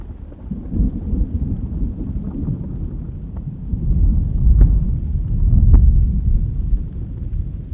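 Deep, rolling thunder rumbles continuously, swelling louder midway, over a steady hiss of falling rain with occasional sharper drips and patters. No voices are present.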